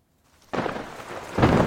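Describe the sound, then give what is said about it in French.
A rough, steady roar of a rain and wind storm under a grey sky with low clouds in the morning bursts in after a quiet moment, then surges louder near the end like a strong gust sweeping through. “Il pleut, il vente, le ciel est gris, les nuages sont bas comme notre morale à tous.”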